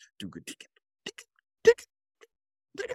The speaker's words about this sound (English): But oh, he's hitting he's hitting the bell of the hi hat to get that sound.